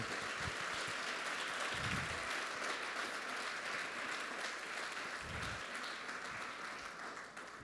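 A church audience applauds the Lord steadily for several seconds during a sermon, a dense, even wash of many hands clapping with a low rumble underneath, holding at a constant level before tapering slightly at the end.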